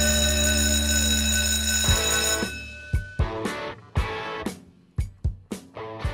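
A school bell rings loudly and continuously for a couple of seconds, then cuts off, followed by a series of sharp, ringing percussive hits spaced irregularly. No one speaks.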